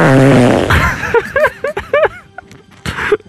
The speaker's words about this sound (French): Ça bouillonne. J'entends ça, oui.